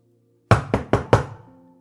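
knocking on a door

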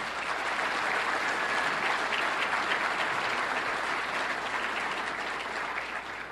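audience applause

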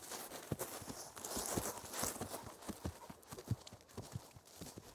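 horse hooves clip-clopping

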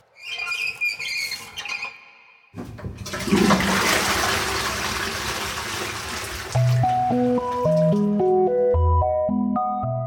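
urinating into a toilet

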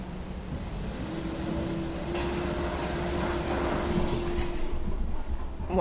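truck rumbling past

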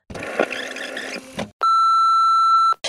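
answering machine beep

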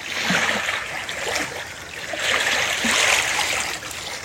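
lake water lapping

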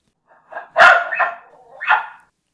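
herding dog barking

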